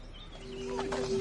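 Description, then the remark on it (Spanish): Soft birdsong with a few faint chirps and whistled notes over a steady low hum that grows slightly louder toward the end. No one speaks. “Papá está mirando a los pájaros. Mira, están cantando.”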